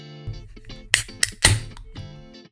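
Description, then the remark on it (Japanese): A can of Obelisk Brewing IPA, a local beer from Astoria, Oregon, is cracked open: a couple of sharp metallic clicks, then a loud pop with a brief fizzing hiss, over a steady tonal background. “やっと、オベリスクの缶ビールは手に入った。乾杯”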